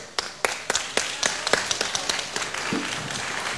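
Audience applause of scattered, irregular claps, sharp and fairly loud at first, then blending into a steadier patter of quicker, softer clapping toward the end, as a guest is called onto the stage during the live show Radio Animati On Stage.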